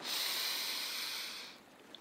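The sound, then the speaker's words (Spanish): A long, airy deep breath drawn in, a soft breathy hiss lasting about a second and a half before easing off into quiet, taken while wading into the sea in Bangli before starting to cry. “Me meto al mar y antes de empezar a llorar respiro”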